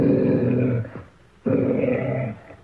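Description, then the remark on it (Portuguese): A large Fila Brasileiro dog, nearly the size of a horse, growls twice, two long, deep, rumbling growls separated by a short pause, loud, with no one speaking. “Mas diz aí que o tal do miúdo era um fila brasileiro quase do tamanho de um cavalo.”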